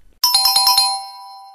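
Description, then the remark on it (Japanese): A bright electronic quiz chime marks a correct answer to a true-or-false quiz question, a quick burst of about six ringing tones at a steady pace, then a sustained tone that slowly fades. No one speaks. “正解です。ピンポンピンポンピンポン。”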